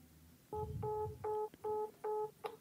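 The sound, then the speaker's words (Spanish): A phone number is keyed in: five short, evenly spaced dual-pitched DTMF beeps, fairly loud, with faint handling noise and no talking. “Si lo marcamos, ¿crees que salga en algún lado?”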